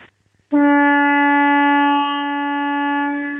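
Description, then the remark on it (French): A single loud, steady horn blast from a tour boat starts abruptly after a brief quiet moment and holds one deep, rich tone for about three seconds with no talking. “Vous avez un, vous avez un sifflet, quelque chose comme ça, pour qu'on l'entende ou eh ben, pas je, je, vous attendais, écoutez bien.”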